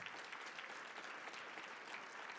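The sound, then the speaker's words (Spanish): A church audience breaks into sustained applause for the Lord, a dense, steady wash of many hands clapping with no pauses or voices standing out. “Alguien le pone un fuerte aplauso al Señor por esta palabra.”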